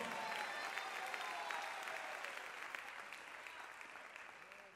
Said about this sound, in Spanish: Si alguien lo cree, déle el mejor aplauso al Señor.